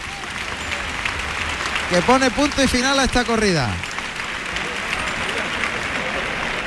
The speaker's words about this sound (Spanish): Saluda finalmente una ovación Juan Ortega